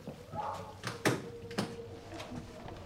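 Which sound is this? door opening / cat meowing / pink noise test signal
door opening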